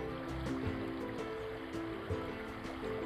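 Steady, continuous rush of flowing water, like a babbling stream, with a low humming tone running underneath and no voices; recorded beside a river during a morning walk.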